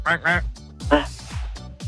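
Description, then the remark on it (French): A person imitates a duck as a hint in a quiz game, letting out a few loud, nasal quacks in quick succession, with no other sounds around. “L'animal qui cancane.”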